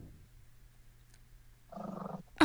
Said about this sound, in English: Can you hear this? There's a chihuahua growling at me inside this fucking room I just walked into.